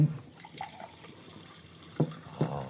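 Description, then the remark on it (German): Water runs quietly in a steady, low trickle, broken near the end by two brief louder splashes or gurgles, like a tap filling a sink. No one speaks. “Oh, der, an, der andere fängt mit dem Wasser an.”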